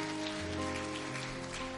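An audience applauding for the Lord at a Sunday church service at the start of Holy Week: dense, steady clapping that holds at an even level for the whole stretch, with a faint low tonal hum underneath and no voices.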